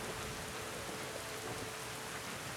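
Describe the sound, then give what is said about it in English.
Steady rain falls with an even, dense hiss, a constant wash of fine patter that holds the same level throughout, with no voices or other sounds. “I can't smell the rain now.”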